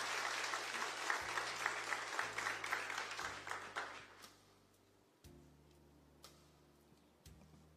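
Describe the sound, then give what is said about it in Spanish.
An audience breaks into dense applause for the King of Kings after a prayer, holding steady for about four seconds, then fading out, leaving a few scattered claps over a low, steady hum. “¿Por qué no le dan un aplauso al Rey?”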